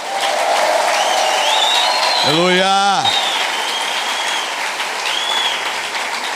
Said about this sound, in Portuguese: Vamos dar uma salva de palmas para os solteiros aqui, né? Aleluia. Amém. Agora vamos dar uma salva de palmas para Jesus nos solteiros.